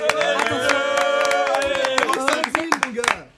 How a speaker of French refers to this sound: Euh, applaudissez-le, ah, s'il vous plaît.